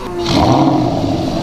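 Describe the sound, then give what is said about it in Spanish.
The engine of a Porsche diesel Standard tractor, played at a Porsche museum exhibit, catches and settles into a loud, steady low rumble, rising quickly in the first moments and then holding a throbbing drone with no one speaking. “Y si queremos disfrutar, por ejemplo, del sonido de un Porsche diesel, en este caso de un Sleeper Standard, podríamos activar su motor, que suena más o menos así.”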